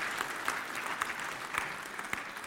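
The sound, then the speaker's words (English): A gathering of people claps steadily for a little boy being welcomed as a new brother in Christ, a dense patter of many hands with a few sharper claps standing out, sustained and even throughout without any talking. “Can we give our thanks and our applause to him?”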